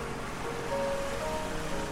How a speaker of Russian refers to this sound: Перед ним возникла такая ненадежная крепость, но тотчас волна, зашипев белой пеной, размыла старательно выстроенный форпост